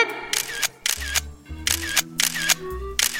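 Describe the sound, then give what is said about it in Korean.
A camera shutter fires in burst mode while taking a group photo: about five crisp mechanical clicks in a steady, even rhythm, each sharp and fairly loud, over a faint low hum with no talking. “김치, 스마일, 찰칵.”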